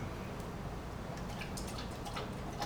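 Water being poured for a drink during a break, quietly, a soft steady trickle with small splashy drips toward the end, with no one talking.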